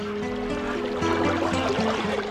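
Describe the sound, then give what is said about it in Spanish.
Water runs steadily in a stream, a continuous gentle rushing and trickling, with a soft sustained musical tone humming underneath throughout. “El agua que corre por el arroyo estuvo presa en medio de cristales, hasta que las hadas ocultas tras las alas de las libélulas la liberaron.”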